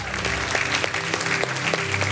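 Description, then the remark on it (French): An audience at a worship service claps and cheers steadily in acclaim for Jesus, a dense wash of applause with voices shouting over it, loud throughout, with occasional sharper claps standing out. “Que tous ceux qui aiment Jésus ce soir les donner une acclamation dans ce lieu.”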